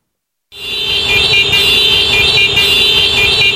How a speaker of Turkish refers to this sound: Korna sesi, trafik ışıkları, egzoz gazı. İstanbul'da yaşayan 7'den 70'e herkesin hayatının bir parçası.